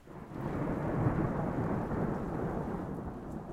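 A steady, heavy summer thunderstorm coming over a mountain, heard at a farmhouse: deep rumbling thunder rolls continuously beneath a dense wash of falling rain, loud, with no voices.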